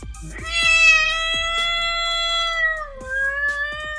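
A cat lets out one long, drawn-out meow lasting several seconds, loud, its pitch holding steady before sagging and wavering near the end, with faint clicks underneath.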